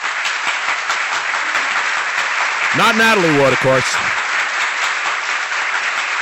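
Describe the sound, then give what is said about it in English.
A loud, dense round of applause fills the whole stretch at a steady level, with a voice speaking briefly over it partway through. “Let me give you a roaring round of applause.”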